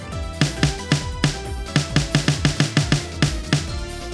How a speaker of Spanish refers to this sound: Ese es el sonido pues de una tarola, digamos ahí para que lo ubiquen.